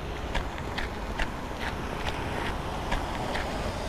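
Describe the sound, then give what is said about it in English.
Steady footsteps peel off a sticky pavement on a Winnipeg street, the sticky layer being aphid poo, each step a short crackling rip repeating about twice a second over a constant outdoor hiss. No voices. “And as Global's Abigail Turner reports, it's making for some sticky streets.”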